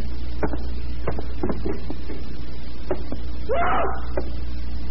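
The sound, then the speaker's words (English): Footsteps of a person climbing stairs: a series of knocking steps at an uneven pace over a steady low hum, with a short breathy gasp near the end. “Listen, you, you can hear him coming upstairs now.”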